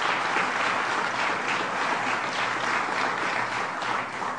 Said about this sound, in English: Let's give them a round of applause for their good work.